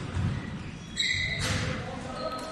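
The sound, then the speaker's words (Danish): A single crisp pock of a badminton racket striking a shuttlecock on a good doubles serve, with a brief ringing ping, over a steady background hum. “En god serve dubbel vil se således ud.”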